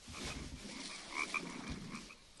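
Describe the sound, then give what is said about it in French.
Frogs croak continuously in a dense chorus, a steady wash of rasping calls with a couple of sharper, brighter notes standing out midway. No one speaks. “On entend, on entend quand même les grenouilles.”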